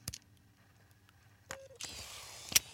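A quiet mechanical sequence from a motorized part sliding out of a camera: a sharp click, a brief motor whine, then a soft whirring slide ending in another crisp click. No one speaks.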